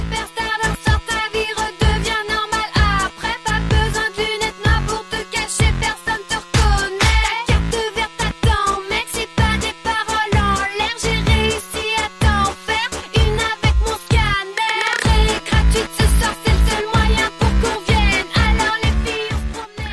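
A French electropop song plays loudly and continuously, driven by a steady pulsing beat with melodic vocals over synths, briefly thinning out for a moment before the groove resumes.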